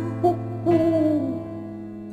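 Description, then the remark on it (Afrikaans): An owl hoots twice, a short call followed by a longer, wavering hoot, heard clearly over a steady low hum with no talking. “en sê nou daar's 'n uil ja uil van die muise altyd skuil”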